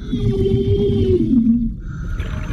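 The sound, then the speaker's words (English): A diver's muffled, bubbling underwater scream as he turns back toward the dermal farm: one sustained, wavering cry that slowly slides downward in pitch over a loud, rumbling gurgle, then gives way to bubbling alone. “The diver turns around to go back toward the dermal farm and lets out a sort of muffled, bubbling scream despite himself.”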